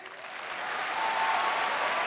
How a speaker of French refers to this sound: Applaudissez tous en même temps pour voir mon trophée, ce que ça peut donner.